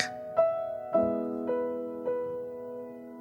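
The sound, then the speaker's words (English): Soft, calming instrumental music for canine sound therapy plays on its own: gentle sustained notes struck at a slow, even pace, each one ringing and fading into the next, with no voices. “And take a few moments to listen to the music”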